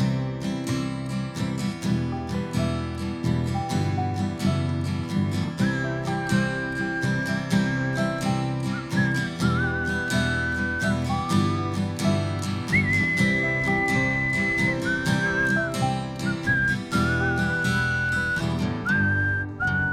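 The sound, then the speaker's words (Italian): Someone whistles a melodic tune over busy instrumental music, the clear pitched notes gliding and holding in short phrases that rise and fall above the steady beat. “Grazie, complimenti, complimenti anche per le tue doti di Di fischiatore, fischiatore.”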